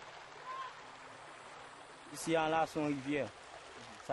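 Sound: river water flowing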